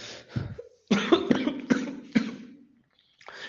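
A man coughs in a rough fit, several harsh, close bursts in quick succession after a short lead-in, then a pause and a faint start of another sound.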